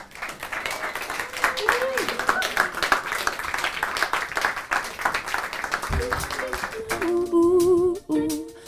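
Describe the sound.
Loud, sustained audience applause with dense clapping and some cheering for a singer and her band, fading into the first notes of their music and a Dutch-language singing voice near the end.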